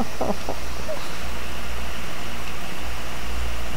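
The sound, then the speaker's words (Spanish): A steady, fairly loud wash of static hiss runs unbroken throughout, layered over a low electrical hum, with a couple of faint crackles near the start. “Dios mío, y con el miedo que me da la estática.”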